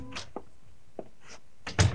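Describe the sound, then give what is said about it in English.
The door of a floor-level office at Powell and Hooker, marked Edward Julian Enterprises Incorporated, opens as someone walks in, with a few light clicks and rattles of the latch and handle, ending in a soft, heavier thunk as it swings and settles. Rain is starting. No one speaks. “On the door it said Edward Julian Enterprises Incorporated. And below it it said walk in. I did.”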